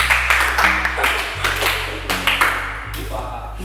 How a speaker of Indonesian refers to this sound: tepuk tangan semuanya